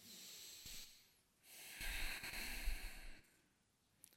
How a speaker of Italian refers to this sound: Io se faccio la pratica da solo di solito lo faccio dal naso. Io preferisco di solito quando sto facendo le meditazioni fare tutta la respirazione direttamente dal naso, no?